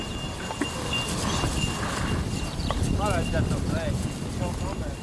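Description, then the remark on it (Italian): Horse hooves clip-clop at a steady walking pace over a constant rumble of wind with a few faint bird chirps in the background. “Portarono con sé i loro cavalli.”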